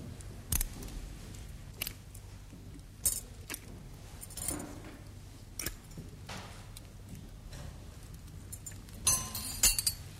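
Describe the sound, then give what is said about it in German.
Metal surgical instruments clink and rattle in a string of sharp, bright taps over a low steady hum, with a cluster of louder clinks near the end as a retractor is handled. “Bitte den Spreizer.”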